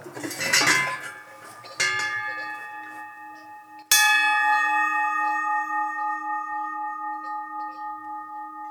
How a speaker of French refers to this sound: Vous avez cloche en bronze, là.